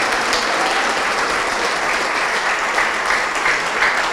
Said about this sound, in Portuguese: Vamos aplaudir mais, vamos aplaudir mais.